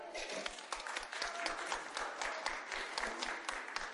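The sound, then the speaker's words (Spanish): A studio audience applauds steadily as an applause vote to decide who wins a cup, many hands clapping in a dense, continuous burst that stays fairly loud throughout the few seconds, with faint voices mixed into the noise. “A ver, el aplausómetro.”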